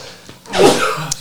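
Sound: sneeze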